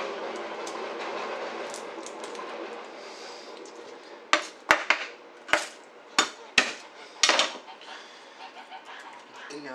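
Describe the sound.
A garlic clove being smashed flat while cooking, with about seven sharp whacks in quick, uneven succession midway through, over a steady background hum with some low talking.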